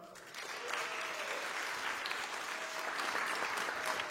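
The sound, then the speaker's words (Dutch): Steady applause from a church gathering in Nijmegen welcoming a pastor, a dense wash of many hands clapping that swells after a quiet start and holds at an even, fairly loud level throughout. “Zullen we hem een applaus geven?”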